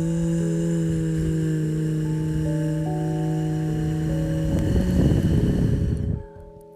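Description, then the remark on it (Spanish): As a breathing exercise, a person inhales, then hums with lips parted and tongue tip almost at the teeth, making a long, steady, low buzzing drone to imitate a bee. The tone holds for several seconds with small pitch shifts, grows rougher and breathier near the end, then stops abruptly. “Como una abeja.”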